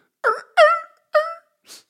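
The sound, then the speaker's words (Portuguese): A person mimics a dog crying at a funeral, making three short whining yelps with falling pitch, followed by a faint breathy sniff, fairly loud with no other talk. “cão chora em funeral”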